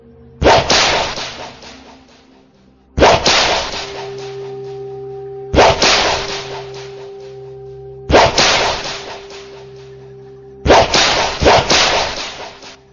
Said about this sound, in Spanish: Muere. Muere. Muere exclamó la dama a tiempo que me azotaba en verdad con el látigo sagrado.